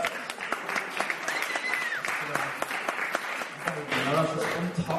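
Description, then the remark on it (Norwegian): An audience claps steadily for several seconds, a dense crackle of many hands with sharp individual claps standing out, while some voices murmur faintly underneath. “Jeg synes jeg, det fortjener en applaus.”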